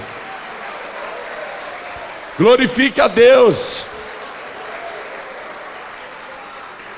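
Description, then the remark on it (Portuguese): An audience applauds and gives glory to God during a sermon, a steady, even wash of clapping that lasts the whole clip, while a man speaks briefly over it partway through. “Isso, aplaude e dá glória.”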